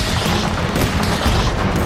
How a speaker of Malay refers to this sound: Pada jam lebih kurang 23.20, Platon telah dipedil bertubi-tubi oleh militer Somalia dengan senjata automatik menggunakan machine gun, senjata pelancar roket anti kereta kebal, mortar dan roket dari bangunan di kiri dan kanan jalan.